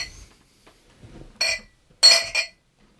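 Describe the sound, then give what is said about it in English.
Glasses clink together in a toast, three bright chiming knocks, one alone and then two in quick succession, clear, with only faint background murmur. “Glad to have you aboard. Uh, cheers. Cheers. Cheers.”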